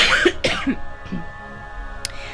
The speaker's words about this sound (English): I'm going to cough, excuse me.